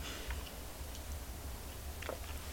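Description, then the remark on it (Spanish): A quiet sip of coffee: a few faint clicks and a brief slurping swallow near the end, over a steady low hum with no talking. “Un café amargo lo resuelve todo, o casi todo, al menos el cansancio de la semana informativa se alivia bastante con este sorbito que me voy a dar ahora mismo”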